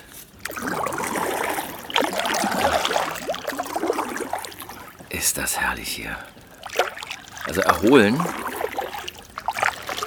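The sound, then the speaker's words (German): Soft splashes and gurgles of a canoe paddle dipping into calm water, repeating unevenly while a person speaks quietly over them. “Tief durchatmen und losgepaddelt.”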